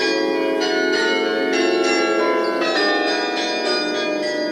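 Carillon bells of the Westertoren ring out, played between 12 and 1, in a continuous run of overlapping, resonant chimes, struck every half second or so with rich lingering overtones and no voices.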